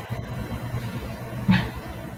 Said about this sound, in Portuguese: Oi, o que tá acontecendo aí? Alguém tá passando por uma empresa de caminhão aí, testando buzina, eu sei lá.